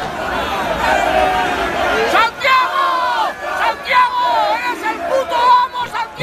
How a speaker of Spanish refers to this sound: Y un chico grabó eh, cuando salió Abascal y verdad que iba como una marabunta de gente y todo el mundo gritaba, presidente, presidente.